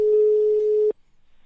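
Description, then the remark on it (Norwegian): A single steady telephone ringback tone sounds for about a second, clear, as someone places a call to see if he answers, then cuts off into near silence. No one speaks. “Se om han svarer, da.”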